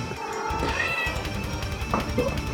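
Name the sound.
cat meowing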